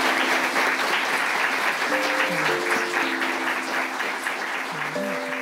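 Steady, dense applause from a large audience fills the whole stretch, a continuous wash of clapping with a few faint sustained musical notes drifting underneath. The audience is thanking the panelists at the event Kicking Goals: Soccer, Equality and the Women's World Cup, recorded on 29 July 2023.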